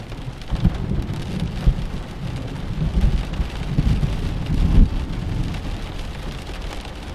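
A thunderstorm heard from shelter inside a house: steady, dense rain hisses continuously while low thunder rumbles and rolls underneath in several swelling waves, with no voices present.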